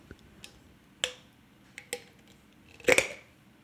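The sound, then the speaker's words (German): A glass jar lid being unscrewed: scattered sharp clicks and scraping ticks, then a louder cluster of bright, ringing clicks near the end as the lid comes loose. “Glas aufschrauben.”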